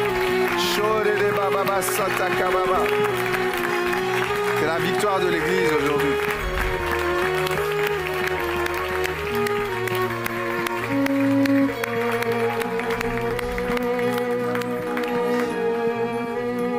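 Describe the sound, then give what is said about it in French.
An audience claps steadily and continuously under sustained music, applauding the Lord, with a voice speaking over the applause at a loud, even level throughout. “Oh, quelqu'un peut dire Amen et applaudir le Seigneur.”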